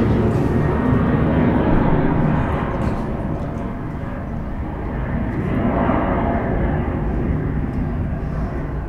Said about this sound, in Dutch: Ik ga even wachten tot het vliegtuig voorbij is.